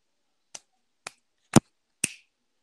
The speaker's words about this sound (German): Ah, hast du gerade geschnipst? Ja. Ja, jetzt höre ich dich wieder.